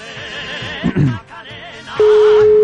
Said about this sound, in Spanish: Bueno, pues ya suena el teléfono, ¿eh? Vamos a ver, vamos a ver, vamos a ver qué pasa aquí.